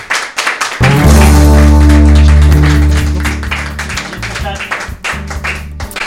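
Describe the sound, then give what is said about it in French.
A crowd applauds two young women with steady, dense clapping that runs through the whole moment, partly covered by a loud, sustained low musical chord that swells in and then fades. “Bon, maître, je pense qu'on peut applaudir ces deux jeunes femmes, s'il vous plaît.”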